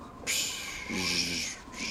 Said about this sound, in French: Pourquoi les chiens hurlent comme ça? Je sais pas.